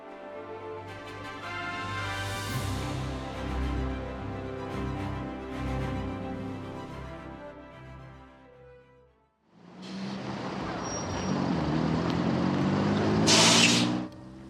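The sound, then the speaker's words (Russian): A large intercity bus engine, on a trip from Novorossiysk to Gelendzhik, a resort town on the Black Sea coast, idles with a steady, tonal hum, then cuts to a long pneumatic hiss of air brakes that swells into a sharp, loud burst of released air near the end. “До курортного города на берегу Черного моря ей пришлось добираться на междугороднем автобусе.”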